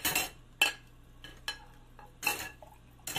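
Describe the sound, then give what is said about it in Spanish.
Dishes and cutlery clink and clatter in a few sharp, bright knocks spread across a few seconds as plates are washed, over a low steady hum like running water or a kitchen appliance. “Espérame tantito, que estoy lavando los platos.”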